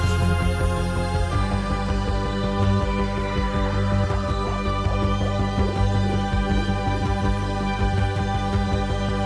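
Electronic synthesizer music plays steadily with layered sustained tones, a deep pulsing bass and a sweeping high synth glide near the start, evenly loud throughout with no voices.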